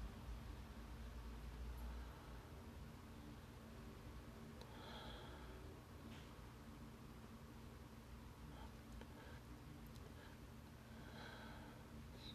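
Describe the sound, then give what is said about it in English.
Several short, quiet sniffs of whiskey in a glass, spaced out over a steady low background hiss with no talking. “Sorry, I'm just kind of, I know sniffing things doesn't really go well on this medium, but originally I said banana.”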